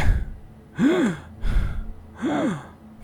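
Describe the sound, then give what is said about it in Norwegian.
A voice imitates the labored gasping of a knight, several strained, rising-and-falling breaths with raspy air, spaced about a second apart, fairly loud with no other speech. “T springer bort til ridderen, ja, det gjør han. som fortsatt gisper og sier”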